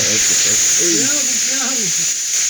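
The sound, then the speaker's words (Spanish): A pressure cooker hisses steam in a steady, high-pitched whistling rush that holds constant throughout, while people talk over it. “Cuidado las manos, madre Va, sí, eh, la olla presión.”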